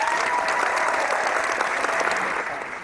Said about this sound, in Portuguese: Isso eu batendo palmo, não sei se dá pra ouvir, porque eu tenho que fazer baixo.